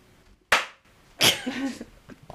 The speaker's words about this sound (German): Das war der Applaus für Ryan. Super.